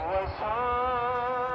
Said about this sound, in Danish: Danskernes træningsanlæg ligger cirka 30 km ude i ørkenen, inde fra Doha, og det man kan høre i baggrunden lige nu er et af de fem daglige bønnekald, som øh, lyder ud over byen Doha.